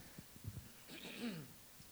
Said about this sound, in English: Forgive me for uh, coughing or cl- clearing my throat.